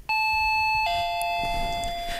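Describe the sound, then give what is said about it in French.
A two-note shop jingle chime announcing the store's opening, a bright higher tone dropping to a lower one, each ringing out steadily with a long sustained tail. “Mettez-moi une petite, euh, un petit jingle de magasin, car Céline annonce maintenant l'ouverture du magasin et l'accueil des ménagères et des clients.”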